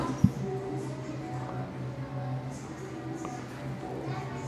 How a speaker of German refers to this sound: Ein bisschen asthmatisch, aber das sind offenbar original Piepstöne. ich nehme mal an, da ist jetzt keine Morse-Botschaft oder irgendwas mit verbunden. Es war einfach nur Lebenszeichen.